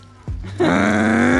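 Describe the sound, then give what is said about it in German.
A voice imitates a motor scooter with a buzzy, droning hum that holds steady for about a second and rises slightly in pitch, fairly loud, after a short breathy sound. “nee, das ist Roller.”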